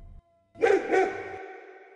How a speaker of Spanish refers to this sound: solo quedaron los perros, que su madre alimentaba por las noches. Gruñían hambrientos, con chillidos nostálgicos que hacían eco en el mercado.